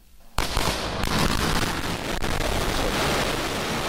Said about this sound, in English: that uh, that sonic boom was great for us.